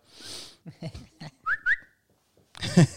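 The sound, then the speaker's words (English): A dog named Phoebe snorts with a breathy puff, then gives short nasal whimpers and two thin, rising whines, followed by a burst of laughter. “And as always, you may hear some dog in the background.”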